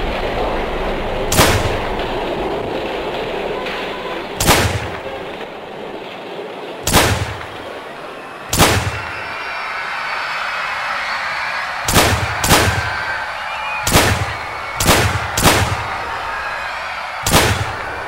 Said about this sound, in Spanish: Ante los sonidos de los primeros disparos, los cuales vinieron desde un lugar desconocido, la multitud se lanzó al desorden y se entregó al caos.